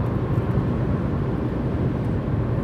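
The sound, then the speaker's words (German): Steady, low rumbling road noise from inside a moving one-year-old Ford Focus diesel estate car, a constant engine and tire drone that fills the whole clip without pause. No one speaks. “auf jeden Fall haben wir dann jetzt einen Jahreswagen, einen Ford Focus, Kombi, Diesel”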